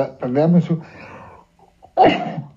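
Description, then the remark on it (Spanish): A single sharp sneeze caused by allergy bursts out after a brief voiced sound and a short pause, loud and abrupt, then trails off quickly. “Perdón. ¿eh? ¡Salud! La, alergia, la alergia.”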